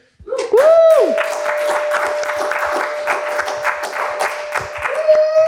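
A crowd breaks into loud, steady applause with dense clapping throughout, joined by a rising whoop and a long, sustained high cheer or whistle held over the clapping.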